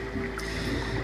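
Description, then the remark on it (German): Soft, continuous underwater gurgling and muffled bubbling from scuba diving, steady, with a low watery rumble throughout and no voices. “Ihr hört es ja schon im Hintergrund, ein sanftes Klucksen, die Geräusche, die beim Tauchen entstehen.”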